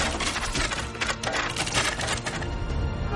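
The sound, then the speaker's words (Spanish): A volley of arrows loosed from longbows by English archers at French troops in battle: a dense, continuous clatter of rapid snaps and whooshes from many bows at once, fairly loud and steady throughout, with no voices. “Los arqueros arman sus arcos. ¡Preparen!”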